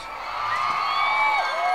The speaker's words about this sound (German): Ähm, dafür gibt es dann noch einen Applaus.